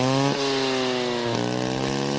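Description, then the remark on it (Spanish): A small motorbike engine drones loudly and steadily, its buzzing pitch dropping abruptly twice as it shifts, then holding a high, raspy whine. No one speaks. “Esa moto para si tú el caballito le pones mosca en la parte de atrás, ¿no?”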